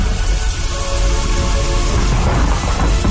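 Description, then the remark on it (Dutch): Heavy rain pours down steadily and loudly, with the low rumble of thunder rolling underneath. It's a dense, unbroken storm wash with no voices. “En s'morgens, bij een hevige, hevige storm”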